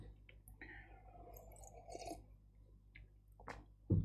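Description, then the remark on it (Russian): A person pours water for himself into a glass, a short gurgling trickle that fades into a few drips, followed by a dull thump at the end. No one speaks. “Так, мне надо водички себе налить.”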